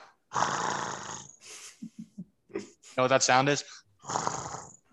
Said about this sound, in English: What is it? A cat snoring.